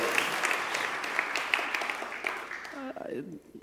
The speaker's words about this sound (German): Und so ich will einen großen Applaus abgeben für unser Dream Team, jetzt gerade in diesem Augenblick. Danke, Dream Team.